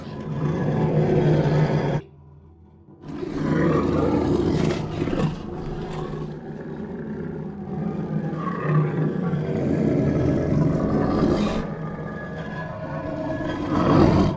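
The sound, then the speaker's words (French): A loud, raw scream blended by a sound designer with a harsh, guttural angry camel roar, sustained and rasping for over ten seconds after a brief opening burst and short pause, dense, with no talking. “À ce cri, le sound designer va rajouter un rugissement d'animal.”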